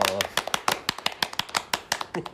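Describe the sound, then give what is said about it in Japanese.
A short burst of hand clapping, a quick run of sharp, fairly soft claps at an uneven rhythm, with a voice briefly audible at the start. “もうちょっと大きく拍手しよう声出していこうぜ今日どうしたんだ2人とも”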